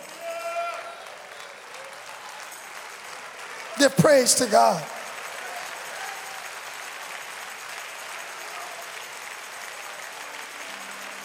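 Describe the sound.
A church audience, standing, claps their hands in praise to the Lord in a dense, steady wash of applause that carries on throughout, with a voice calling out briefly over it partway through.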